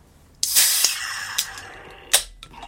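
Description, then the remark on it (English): A beer can snaps open with a sharp crack, then a loud fizzing hiss that slowly fades, followed by a second brief burst of fizz near the end. “So let's go and get this cracked and poured hard, as they say.”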